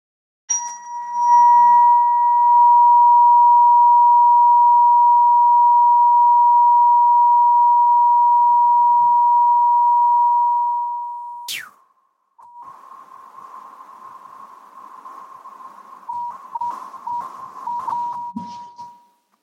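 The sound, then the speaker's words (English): A loud, steady, high pure tone holds for about ten seconds, then fades. A quick upward sweep follows, then a rougher, wavering tone that continues to the end. “See that when the tone doesn't, it does last long, but we don't hear it lasting as long because the pitch is so high.”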